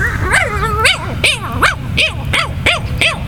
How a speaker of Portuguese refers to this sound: Cala a boca, cachorro.